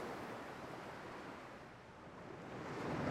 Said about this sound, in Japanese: ねえこの時計時間になると波の音が鳴るんだってそう 変だよね波の音なんて流れてきたら逆に寝ちゃうって